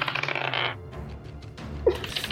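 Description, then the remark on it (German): Dice clatter and rattle across a hard surface in a quick burst of small clicking impacts as they are rolled for initiative, followed by a brief pause and another sharp click. “Und ich möchte euch bitten, nun bitte Initiative zu würfeln.”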